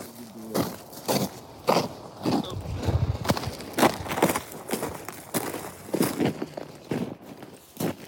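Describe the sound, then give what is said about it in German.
Footsteps crunch over icy snow outside Kyiv shortly before midnight, at a steady walking pace while out with volunteers, each step a gritty crackle repeating about once a second with no voices. “Das ist vereister Schnee.”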